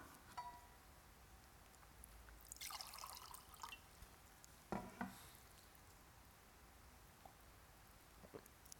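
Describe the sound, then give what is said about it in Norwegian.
Someone takes a quick sip of water: a soft, splashy liquid burst, then a brief sharper sound like a swallow or the glass being set down, with no talking. “Jeg skal bare ta litt vann.”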